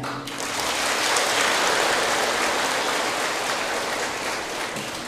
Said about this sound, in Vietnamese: nếu quý vị thấy ờ, điều đó là thực hiện được thì hãy dâng cao một tràng pháo tay